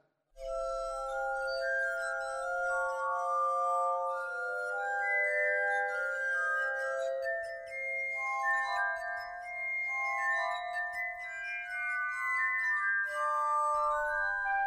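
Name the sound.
glass harmonica playing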